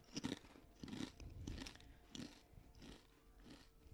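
Someone bites into a crunchy snack and chews it, producing about seven loud, crisp crunches in a steady rhythm, with no talking.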